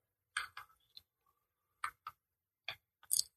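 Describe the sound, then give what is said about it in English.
A clock ticks and clicks: several sharp, crisp taps in uneven groups, some in quick pairs, with brief silences between and no voices. “And I'm going to hit my clock so I don't go over.”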